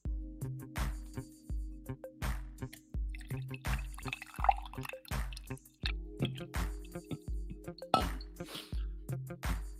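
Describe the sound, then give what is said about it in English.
The last couple of drips of coffee being poured into a cup, a quick steady series of drips and small gurgling glugs, about two per second, continuing throughout with no talking. “Don't get excited for a pour. I think there's literally like a couple of drips left”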